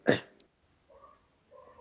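A single sharp, abrupt hiccup bursts out from the speaker, followed by a tiny click and a couple of soft, faint murmurs afterward.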